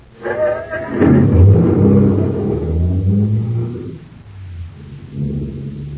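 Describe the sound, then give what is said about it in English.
A car engine turns over and catches, then revs up into a loud, rising roar before settling back to a lower rumble, with no voices over it. “Start the car, Blake.”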